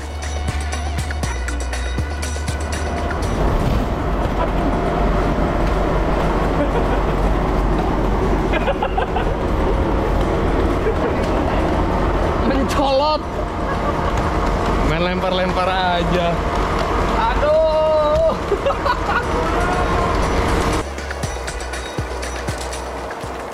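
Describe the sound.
A sugarcane crushing machine with a capacity of over one ton per hour runs at a granulated sugar factory with a loud, steady engine rumble and mechanical clatter, voices rising briefly over the din before the low drone eases near the end.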